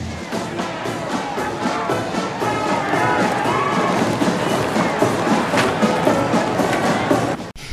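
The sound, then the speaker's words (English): A large crowd of hostile protesters murmurs and shouts continuously on Fifth Avenue in New York, outraged over continued killings by a cop, with police and bomb squads out in force; a dense wall of overlapping voices with occasional louder calls, steady throughout before cutting off abruptly. “Public outrage over the continued killings by the so-called maniac cop have brought many hostile New Yorkers to New York's Fifth Avenue today.”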